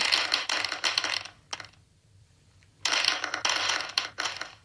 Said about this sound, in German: dass ich mir jetzt einfach meine letzte Frage erwürfel?